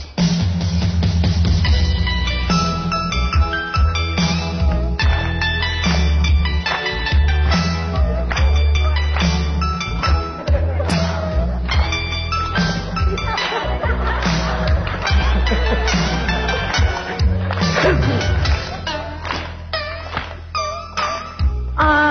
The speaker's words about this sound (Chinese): 来吧，你给我唱唱，我听听啊。 奏药， 感觉一下啊。 奏药， 奏乐。